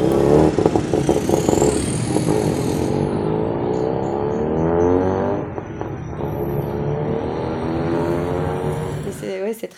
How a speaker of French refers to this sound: Ils, ils font tous des bruits, des bruits de voitures de course aussi. Hein. ainsi que les tuk-tuk.